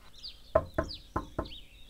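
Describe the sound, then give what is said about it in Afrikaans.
Four sharp knocks on a door in two quick pairs, fairly loud, with faint bird chirps in the background between them; a father knocking at the door of the house, unable to get in. “Toe hoor Tinus 'n klop aan die deur.”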